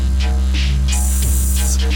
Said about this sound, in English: Like a like a hiss? Is this a snake or something? We don't know.